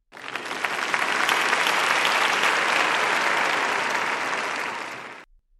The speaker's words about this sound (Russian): Вы молодец, аудитория начинает вам аплодировать.